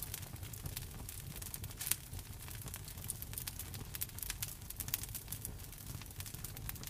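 A fire crackles steadily in a fireplace, with frequent sharp pops and snaps over a low, soft roar, fairly quiet and continuous with no voices.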